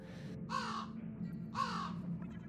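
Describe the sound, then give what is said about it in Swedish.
Two harsh crow caws about a second apart, loud, over a steady low rumble of background noise with no talking. “Du kan inte riktigt säga det säkert, men det ser nästan ut som samma kråka som kraxade på dig tidigare.”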